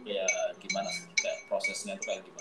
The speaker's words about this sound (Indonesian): Bakso, bukan suara bakso. Itu suara mangkok diketok gitu.